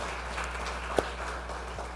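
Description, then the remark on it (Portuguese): A church audience applauds the women of the Quadrangular church with a steady, dense wash of clapping at a fairly soft level, with one sharper clap briefly popping out near the middle. “E eu quero que vocês aplaudam as mulheres, quadrangular, aleluia.”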